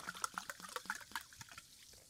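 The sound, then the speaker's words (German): Sparkling water pours from a bottle into a glass with a quick run of bubbly glugs and splashes, moderately quiet, easing off toward the end. No one speaks. “Mach mal hier Sprudelwasser und schau mal den”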